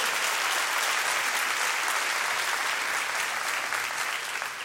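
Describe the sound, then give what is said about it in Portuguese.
A crowd applauds steadily for several seconds, a dense, bright wash of many hands clapping at an even loudness that only starts to thin slightly at the very end. “Pode dar um salve de palmas, é, é coisa de Deus.”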